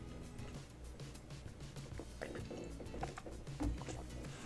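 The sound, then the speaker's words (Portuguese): Soft mouth and liquid noises as someone takes a quiet sip of water and swallows, with a small gulp near the end and no talking. “Desculpa, bebeu uma água aqui.”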